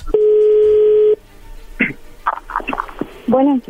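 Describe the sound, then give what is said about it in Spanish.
A steady, loud telephone dial tone hums for about a second, then stops, followed by a scatter of short tones and clicks as a number is dialed, ending in a brief beep. “A ver, le va a llamar el lobo, no haga ruido, por favor.”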